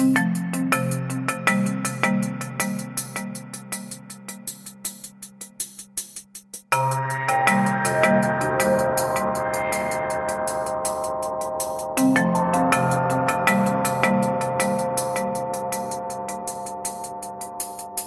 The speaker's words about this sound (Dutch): wij hoorden in het intro van deze aflevering het koor en orkest van het Rode Leger met de Internationale.